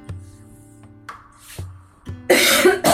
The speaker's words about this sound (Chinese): 我这个咳嗽没办法控制。